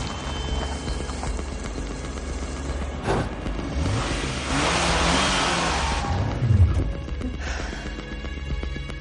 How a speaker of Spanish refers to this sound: Se sale de la trazada. El coche queda atrapado en la nieve.